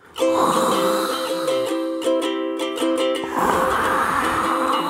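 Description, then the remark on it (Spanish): A voice imitates ocean waves with a steady breathy whooshing hiss. A loud sustained tonal sound overlaps it for the first few seconds, then the rushing noise continues alone, fairly loud. “Tú recrea las olas del mar.”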